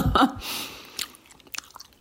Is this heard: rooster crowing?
no